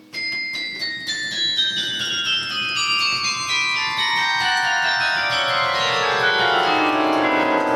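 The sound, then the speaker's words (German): Carillon bells of a 49-bell, four-octave instrument, weighing 15 tonnes in all, ring out a steady descending run, each tone overlapping the last so the ringing piles into a dense, sustained shimmer, loud with no voices. “man könnte vier von den bestehenden Glütglocken einbeziehen und so ist dieses Instrument entstanden, das aus 49 Glocken besteht und vier Oktaven umfasst.”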